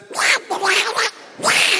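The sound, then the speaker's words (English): A voice imitates Donald Duck's raspy quacking speech in three buzzy, garbled bursts, fairly loud, with short pauses between them. “So you walk in, not a bad Donald Duck, right? Donald's hard to do.”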